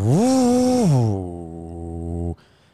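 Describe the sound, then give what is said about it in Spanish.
A person vocally imitates a newly bought car's air conditioner failing: a rising buzzy hum that drops abruptly into a low, steady droning groan, then cuts off into a faint hiss. “Y ten en mente que cuando nosotros estábamos de camino, cuando compramos el carro, el carro, el aire acondicionado hizo, estaba prendido normal y tú escuchas el aire, ¿verdad? Y de hizo...”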